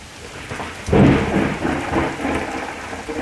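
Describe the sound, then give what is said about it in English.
A thunderstorm with steady rain hissing throughout and a deep rumble of thunder rolling in near the start, swelling loudly then fading into a lingering low roll beneath the downpour. “I hope it's still there when this storm passes.”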